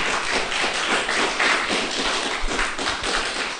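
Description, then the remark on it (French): An audience filling the large council chamber of the Marais town hall applauds steadily, a dense, continuous crackle of many hands clapping at once with no voices over it, holding an even loudness throughout. “On va le prouver si le public peut se faire euh, entendre. Il y a du monde, il y a du monde là aujourd'hui.”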